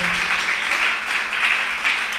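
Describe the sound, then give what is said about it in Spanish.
An audience at a church service applauds for Christ steadily, dense overlapping claps forming a continuous bright wash of sound with slight swells, holding at an even, fairly loud level throughout. “Den un aplauso a Cristo porque Él es bueno, porque Él es poderoso.”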